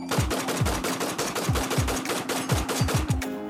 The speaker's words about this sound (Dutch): het overduidelijke geluid van een 7,62 mm Kalashnikov.